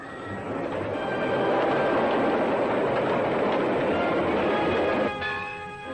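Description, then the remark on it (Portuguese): A train rumbles steadily and loudly along the tracks, a dense rolling roar with metallic clatter, ending in a brief high ringing tone as the noise eases slightly. “Trintos cediam ao peso do trem, dormentes apodreciam.”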